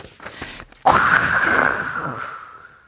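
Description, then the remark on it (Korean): After a quiet moment, a cola can is opened inside a car stopped at a traffic light, cracking open with a sudden pop into a loud, sustained fizzing spray as the cola shoots up, hissing for about two seconds before gradually easing off. “엄청난 탄산 소리와 함께 콜라가 치솟더니 차 안에서 분수쇼가 펼쳐졌습니다.”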